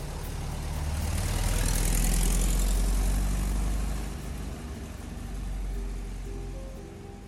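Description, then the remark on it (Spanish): A car engine rumbles with a low, steady drone, swelling louder over the first couple of seconds, easing off, then rising again slightly as the car approaches and arrives in the morning. “Nos damos cuenta porque el motor de su auto es bien, bien característico.”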